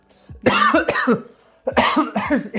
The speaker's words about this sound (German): Erstmal voll ins Gesicht gehustet.